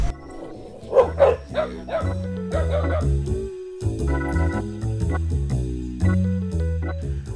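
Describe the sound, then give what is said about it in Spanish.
Dogs bark and yip in a short flurry of sharp calls early on in Santa Elena, then fall quiet, with steady tonal music or droning sound continuing underneath throughout. “Tranquila que los perros ya mordieron.”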